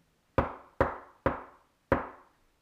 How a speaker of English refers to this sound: Shyly, he knocked on the door. When there was no answer, Anton summoned his bravery and knocked again, a bit louder this time.